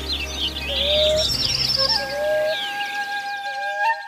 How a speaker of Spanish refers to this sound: es la hora preferida por muchas aves para cantar, pues entre otras cosas es la hora en la que el canto llega más lejos porque hay más humedad y menor temperatura en el ambiente. ¿En tu ciudad se oye el concierto de las aves que cantan al amanecer?